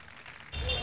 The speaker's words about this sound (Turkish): Şarkı başladı. Bu baştaki sesler var ya. Bak bu araba, atmosfer sesi filan. Bunları duyuyor musun şu an?